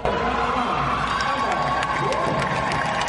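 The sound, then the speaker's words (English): At a swimming medal ceremony, a large crowd cheers and applauds steadily for second-place finisher Emma Weyant, a dense wash of voices with higher shouts and whoops rising above the sustained roar. “Lia's time was 1.75 seconds ahead of second place finisher Emma Weyant, who received a rousing applause during the medal ceremony.”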